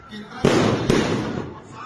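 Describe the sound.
Fireworks exploding: two sharp, loud bangs about half a second apart, each trailing off in a crackling rumble, with a faint murmur of voices underneath.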